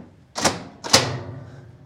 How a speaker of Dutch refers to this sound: We zijn nu in de catacomben van eh, de gemeente. Zo kun je het wel stil eigenlijk. Ja. ja. Een zware deur. Nou. Laten we de kluis binnen gaan.